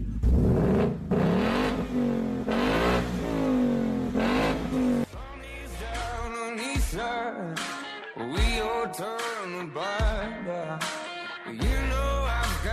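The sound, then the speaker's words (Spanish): A 480-horsepower Ford Mustang Mach 1, the returning version of the legend first made in 1969, tested that day by the Autos y Más team, revs loudly, its deep growl climbing in pitch over several sustained pulls, then continuing in a series of shorter, choppier blips with brief drops between them. “Me refiero al Ford Mustang Mach 1 que se escucha más o menos así.”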